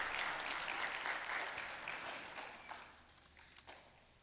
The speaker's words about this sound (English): Praise God. Give Him a hand clap. Praise the Lord.